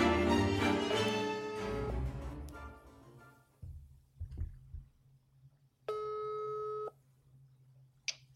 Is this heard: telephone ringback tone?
yes